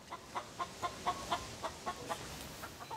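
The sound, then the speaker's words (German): Chickens cluck in a steady run of short, repeated calls, about ten in quick succession, moderately loud over a faint background hiss, with no talking. “Die Hobbyhaltung von Hühnern ist ein echter Trend geworden.”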